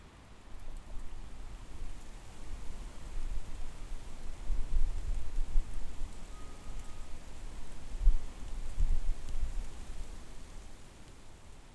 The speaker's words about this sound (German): Rauschvergleich. Pappel und Weide lassen sich relativ leicht unterscheiden. Das laute Rauschen der Pappel lässt sich schwer mit dem sanften Säuseln der Weiden verwechseln.